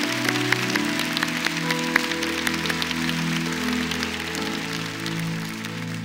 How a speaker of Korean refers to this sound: 여러분 우리 기도하기 전에 십자가 위에서 우리 모든 죄를 사하시고 그 법조문으로 쓴 증서를 십자가 못 박아버리시고 우리를 지배하고 다스리던 그 어둠의 영들을 무력하게 무장해제시키시고 그들에게 수치를 안겨주시고 승리하신 그 주님 우리 그 주님께 영광의 박수를 올려드리겠습니다